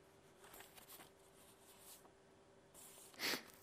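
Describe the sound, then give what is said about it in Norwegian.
Soft rustling of paper sheets as a speaker leafs through their notes during a Bible reading, a few quiet crinkly shuffles and then one sharper, louder page flip near the end as a sheet is turned too far, over a faint steady hum. “Jeg bladde ett et ark for langt.”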